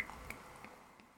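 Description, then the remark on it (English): Cheap champagne fizzing: a faint, steady crackle of bubbles with a few scattered tiny pops, heard on its own without any talking. “That is the sound of cheap champagne, mm.”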